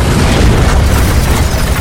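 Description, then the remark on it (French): A loud explosion of a large wooden barrel filled with gunpowder thrown at Bonaparte's carriage, shattering its windows: a heavy booming blast that rolls on as a dense, rumbling roar, with crackling debris throughout and no voices. “Qu'est-ce qui se passe Je crois qu'on nous attaque On vient de jeter sur nous un gros tonneau de bois, rempli de poudre à canon”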